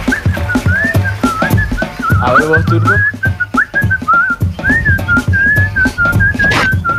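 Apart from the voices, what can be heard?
person whistling a tune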